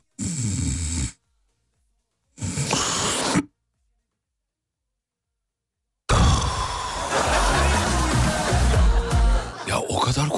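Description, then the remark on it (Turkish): A voice imitates a sleeper's irregular breathing: two raspy, snore-like breaths separated by long, uneven silences, followed by a louder, sustained burst of noisy vocal sound. “Bak şöyle insanlar var uyurken bak.”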